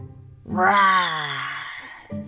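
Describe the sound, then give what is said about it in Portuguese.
A person's voice lets out a single loud, drawn-out roar imitating a troll, starting strong and sliding lower before trailing off, after a moment of quiet. “De repente, um rugido bem alto.”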